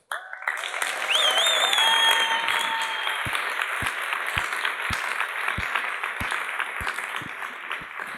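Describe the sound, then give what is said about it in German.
Loud, roaring applause from a large audience at ICF Munich welcoming a speaker onto the stage, a dense sustained wash of clapping with cheers and whistles rising above it, holding steady for several seconds. “Und wir werden dich jetzt hier begrüßen auf dieser Bühne, wie wir es im ICF München gewohnt sind, in zu guter Oktoberfestmanier mit einem tosenden Applaus.”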